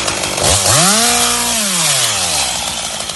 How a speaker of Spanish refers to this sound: Si hubiéramos venido antes, hace unos meses, este silencio se habría roto por el ruido de las motosierras.